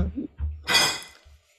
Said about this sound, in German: Das war die Katze. Ja, ich habe es gehört.